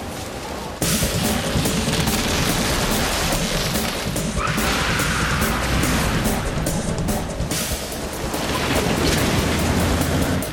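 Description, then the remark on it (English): Heavy hurricane rain pours down in a dense, continuous roar, with deep rumbling thunder rolling underneath and a louder crash of wind and rain swelling partway through. No one speaks. “The hurricane is back!”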